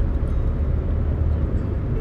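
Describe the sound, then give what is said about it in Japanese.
Steady low rumble of road noise from inside a moving car at sunset, a constant droning hum that stays even and fairly loud throughout, with no voices. “今この車の中からの夕焼けを見ながらねそれを思い出して”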